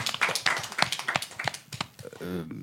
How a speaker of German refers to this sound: auf jeden Fall einmal Applaus dafür.